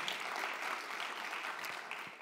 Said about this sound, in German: Und lass uns ihm einen Applaus geben, das gut gemacht, vielen Dank.